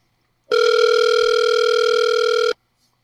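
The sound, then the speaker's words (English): A single steady ringback tone from an outgoing phone call purrs for about two seconds, clear, with silence before and after and no voices. “can you, can you hear the ring?”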